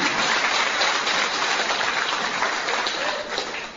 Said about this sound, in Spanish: Un aplauso, ¿no? ¡Bravo!